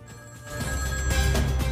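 A telephone rings steadily with a bright, electronic tone, an incoming call, fairly loud, filling the short moment without any voices.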